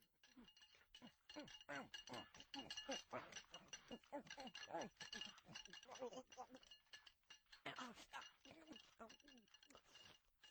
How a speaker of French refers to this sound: Tu peux imaginer manger à côté de Goku et Sangohan. Entends le bruit des couverts et regarde les bols s'empiler les uns sur les autres.